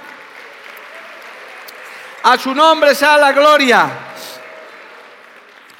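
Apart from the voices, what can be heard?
audience applauding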